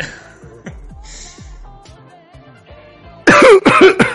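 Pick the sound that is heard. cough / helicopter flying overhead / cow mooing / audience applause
cough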